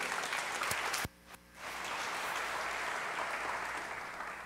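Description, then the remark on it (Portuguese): A crowd applauds the Lord steadily in a dense wash of clapping, briefly dipping after about a second before swelling back to full, sustained applause through the rest. “Você pode dar um aplauso ao Senhor por isso?”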